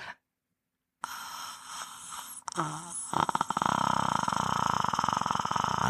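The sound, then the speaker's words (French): A person warms up the voice before going on stage with a simple exercise reaching deep into the back of the throat: after a moment of silence, a deep, raspy sound builds into a rough, rattling, creaky drone held steady for several seconds. “Alors moi, je fais des exercices euh, très simples de de de d'aller chercher au fond de la gorge le”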